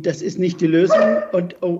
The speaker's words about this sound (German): das ist mein Hund, der bellt. Da wird der Hund auch schon nervös.